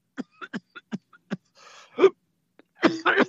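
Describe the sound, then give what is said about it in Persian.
A fit of coughing: a quick string of short, dry coughs, a raspy breath, then a couple of louder, harsher coughs to finish, with no talking. “سرفه های سرطانی من”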